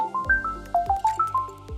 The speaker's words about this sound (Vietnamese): mình thường sẽ để chuông ở chế độ im lặng có thể nói là 24 trên 24 luôn kể cả là chuông của người khác reo cũng sợ nhất là chuông Zalo